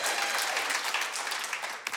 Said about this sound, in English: I was a little offended that at all the services, right when he walked up, people just started clapping for him. And I'm like, they don't, they don't do that for me. And then, no, no, no, don't. It's just patronizing if you do it now.